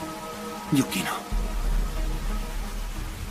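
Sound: rain falling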